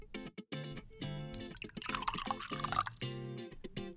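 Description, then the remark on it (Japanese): Oregon oak barrel-aged whiskey from Burnside Distillery poured into a glass, with gurgling glugs and a ringing tone that climbs as the glass fills, in short bursts with brief pauses and no talking. “今日のお酒はバーンサイドディスティラリーのオレゴンオーク樽熟成のウイスキーです。”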